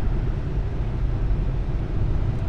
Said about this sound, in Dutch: Ik rij mee in de auto van Marijn Tinga.